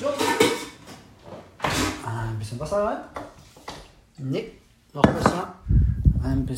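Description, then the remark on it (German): A metal pot clatters and scrapes as it is pulled out from among other cookware to heat up lentil soup, with clanks and a dull knock, while a man talks over it. “So, dafür brauchen wir nur hier mal einen Topf. Alles mal zur Seite.”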